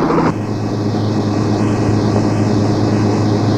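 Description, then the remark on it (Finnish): A helicopter flying overhead drones loudly and steadily, its engine and rotor noise forming a continuous, unbroken roar for the whole stretch, with no voices. “Siinä on helikopteri.”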